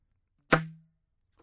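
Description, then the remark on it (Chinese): A single loud saxophone key pad pop: a sharp percussive smack followed by a short, low, hollow tone that rings out and fades within about half a second, then near silence. “嗯， 那当然它有很多的变化，比如说像这个就我们叫做 pop，”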